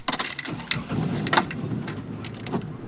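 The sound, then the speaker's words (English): Keys jangle in a few bright, clinking bursts as a woman climbs into her brown SUV with her two grandsons to drive them to school, about 7 o'clock on an April morning in Montgomery, Alabama, with a low rumble and soft rustling underneath and no talking. “climbs into her brown SUV with her two grandsons to drive them to school.”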